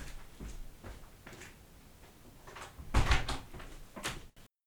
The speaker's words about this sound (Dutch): Doe even de deur dicht.